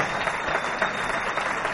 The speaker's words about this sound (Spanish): Ahora sí. Le damos un aplauso. Sé que es de la casa, pero le damos un aplauso a con nosotros.